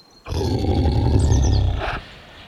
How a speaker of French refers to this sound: Je me trouve présentement devant un ours qui semble vouloir cohabiter avec moi. Et j'ai décidé d'enregistrer cette rencontre historique entre l'homme et la bête.